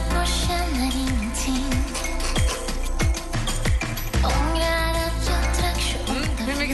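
A dense pop track plays with a steady beat, sustained synth chords and a sung melody line, loud and continuous throughout with no talking over it.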